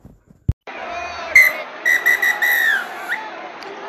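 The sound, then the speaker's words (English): A referee's final whistle sounds several sharp blasts, finishing with a longer drawn-out one, over a steady murmur of crowd noise. “And that's the final whistle.”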